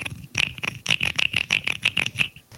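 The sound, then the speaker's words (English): A toy musical frog, a child's instrument, has its ridged back scraped with a stick, producing about a dozen quick, rattling wooden clicks in an uneven rhythm, fairly loud with no talking. “It's basically like a frog with a bunch of like acoustic parts, and like a you get like a that's cool a blocker, like a little block thing, and then you can make sounds like this.”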